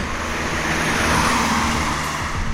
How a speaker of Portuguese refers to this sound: Bom, a gente está aqui num, num, lugar aberto, então pode vazar algum som aí de carro, de buzina, né? A gente vai, já vai pedir desculpa,